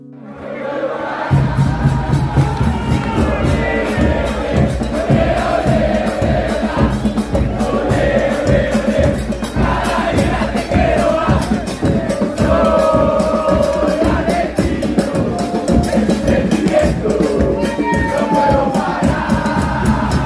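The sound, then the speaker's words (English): A large crowd of Argentinian football fans chants and sings football songs together outside Wembley Stadium four hours before kick-off, heading balls into the crowd, in a loud, continuous roar with rhythmic beats and swelling melodic shouts running steadily throughout. “the Argentinian fans were outside the stadium four hours before the match kicked off, singing football songs and heading balls into the crowd, excited to see their team and their hero footballers.”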